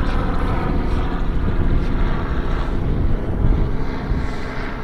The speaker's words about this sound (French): Vous avez droit à l'hélicoptère qui survole la plage.